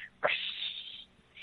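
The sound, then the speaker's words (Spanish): A voice imitates a katana being drawn from its sheath: a sharp breathy onset sliding into a bright, sustained hiss that lasts under a second before fading, fairly loud. “Y de repente se escucha como saca de la funda una katana y hace...”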